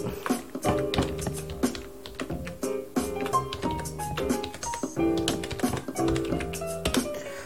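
A home worker types rapidly and continuously on a computer keyboard while preparing documents, a dense irregular stream of crisp key clicks with brief pauses, set over a soft, steady tonal background with no voices.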